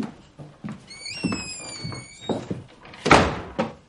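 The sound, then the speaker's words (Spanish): A woman closes a door: it swings with a thin, high creak from its hinges, then shuts with a solid, fairly loud thump, surrounded by a few soft knocks and shuffling sounds and no talking. “Ella rompe la tensión y se levanta. Cierra la puerta.”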